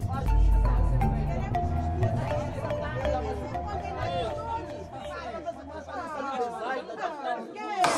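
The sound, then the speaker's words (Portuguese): A crowd in a courtroom chatters before the judge reads the sentence. Many people talk at once in a dense, steady babble of overlapping voices, with no single speaker standing out and the murmur filling the indoor courtroom. “Silêncio no tribunal! Silêncio na sala.”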